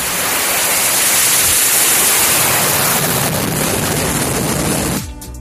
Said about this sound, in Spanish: Estos son eh, los aviones de Estados Unidos y del Reino Unido que hace unas horas han despegado para lanzar un ataque contra objetivos en Yemen.